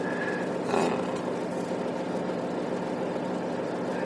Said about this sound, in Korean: 저는 지금 운전을 하고 있습니다. 잠깐 신호 대기 중인데, 아, 주로 저는 방에서 녹음을 하지요. 조용히 집중해서 하는데, 지금 제가 운전하는 중에 어디를 이동하는 중인데요.